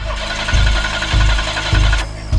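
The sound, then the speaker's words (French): A car engine cranks over and over in a steady, labored rhythm without catching as a young woman tries to start it, the starter chugging loudly with no voices. “La jeune femme tente de démarrer.”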